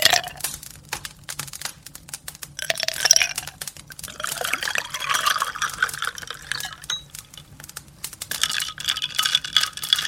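A drink is poured into a glass, a steady splashing trickle that rises and falls over about ten seconds, with faint clinks and no talking.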